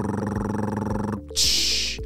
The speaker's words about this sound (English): Hey friends, I need your help celebrating a birthday. Drum roll, please. Brrr.